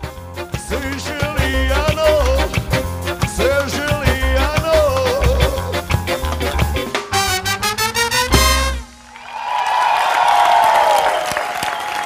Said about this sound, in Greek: Ναι, ναι, μισό λεπτό τα χειροκροτήματα γιατί μετά, έρχεται, μετά το χειροκρότημα έρχεται η κατραπακιά.